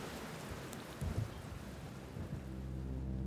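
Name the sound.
rain with thunder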